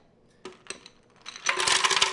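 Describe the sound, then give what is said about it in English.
Ice cubes are put first into a blender jar to make a strawberry banana smoothie: a few sharp, bright clinks, then a loud, dense rush of rattling cubes tumbling in together. No one speaks. “So um, first we're gonna put the uh, ice in.”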